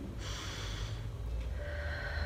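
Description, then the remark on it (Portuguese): A slow, deep, conscious breath taken during a breathing exercise: an airy, breathy rush of air lasting about a second, followed by a softer, slow exhale over low background hum, with no talking. “Solta o ar devagar.”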